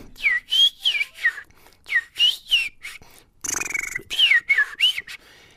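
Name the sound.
whistled imitation of birdsong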